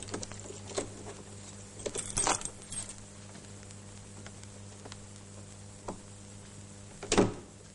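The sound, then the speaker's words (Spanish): The door numbered 121, in a corridor lined with windows, is opened: a few sharp metallic clicks and rattles, like keys and a latch, scattered over several seconds, with a louder clunk near the end over a low steady hum. No one speaks. “Hans abre y accede.”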